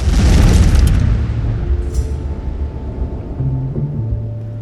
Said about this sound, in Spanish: Operó con normalidad durante nueve años hasta que el 20 de abril de 2010, la plataforma que perforaba el pozo petrolero Macondo explotó.